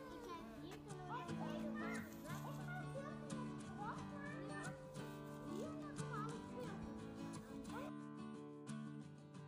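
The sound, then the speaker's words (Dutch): Children's voices shout and chatter at play outdoors in a city, a busy overlapping mix of calls and squeals, with a steady background hum underneath. “Maar soms ook vogeltjes of kinderen.”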